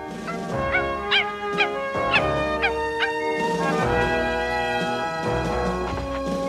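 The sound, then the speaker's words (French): A dog gives a few short, high-pitched yelps and whimpers in quick succession over a steady, sustained musical background that continues after the calls fade. The dog is Milou from Tintin, in the story becoming the first dog to walk on the Moon. “Et voilà, Milou est le premier chien à marcher sur la Lune.”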